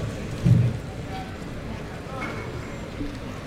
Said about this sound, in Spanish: Otro trincherazo y deja el toro ahí en los medios. La voz de que oímos la voz de Roca Rey llamando al toro.